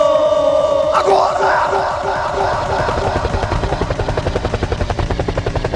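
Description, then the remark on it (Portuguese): A helicopter sound effect at a party, with rapid, rhythmic rotor thumping that grows steadier and more pronounced, with shouting voices and crowd noise briefly over the start. “helicóptero! Helicóptero! Helicóptero!”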